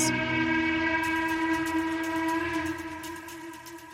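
A train's horn blares in a long, steady chord over the rumble and clatter of wheels on rails; the horn fades after a few seconds, leaving the rolling train noise.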